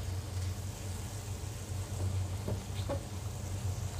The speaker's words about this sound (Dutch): De spruitjes staan te pruttelen, de champignons.